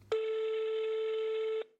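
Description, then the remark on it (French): A telephone call being placed to a friend who is late: one steady, mid-pitched electronic ringing tone lasts about a second and a half, then cuts off. No one speaks. “Tiens, je vais l'appeler pour savoir ce qui se passe.”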